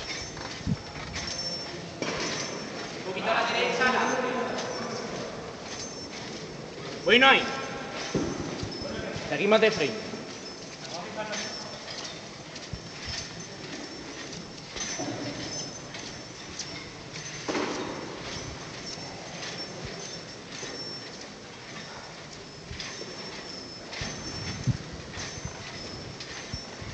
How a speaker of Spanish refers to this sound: Escuchamos ese sonido también tan característico de, la Semana Santa, esas bambalinas chocando con los varales.